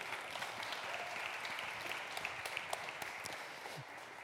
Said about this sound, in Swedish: Ge dem en applåd, tack så mycket.